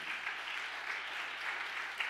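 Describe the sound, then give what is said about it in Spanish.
A crowd applauds steadily, a dense wash of many hands clapping at once, sustained and fairly even in loudness for a couple of seconds with no voices over it. “Del otro aplauso fuerte.”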